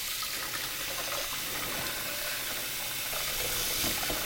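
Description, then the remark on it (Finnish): Hot water pours steadily through a sieve set over a bowl onto rinsed quinoa, a continuous splashing hiss with a slight gurgle, lasting the whole stretch without any talking. “Ja sitten taas siivillä kulhon päälle ja kuumaa vettä kehiin.”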